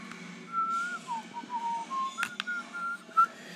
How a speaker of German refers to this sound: Ich mal wieder am Copyrighted Musik Sounds pfeifen.